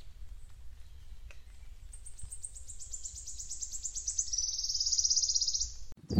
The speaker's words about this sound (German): hier zwitschert's überall rundum sind die Vögel hier am Feiern und am ähm, Pfeifen und Singen und es ist einfach ein Genuss, hier diesen kleinen Weg hier runter zu laufen.